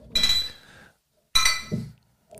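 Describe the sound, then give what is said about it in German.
Two bright glass clinks ring out during a toast, each with a short shimmering decay, followed by a faint soft knock at the end. “Prost. Prost.”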